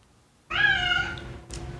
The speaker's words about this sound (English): You hear my cat?